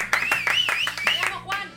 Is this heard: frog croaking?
no